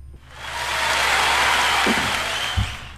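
An audience bursts into sustained applause for a founder pitching a tablet computer made for older square-dancing women on an investment pitch show. It is a dense wash of clapping that swells quickly and holds steady for about three seconds with no talking over it.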